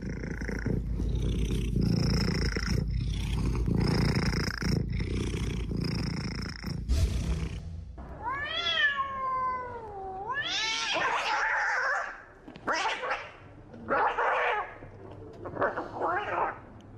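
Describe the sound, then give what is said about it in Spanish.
Cats fighting: a low, rough growling rumble for several seconds, then loud, wavering yowls and shrill screeching cries that rise and fall, intense. “No hay una pelea campal de gatos afuera de su casa o autos, es tan solo nuestra historia sonora.”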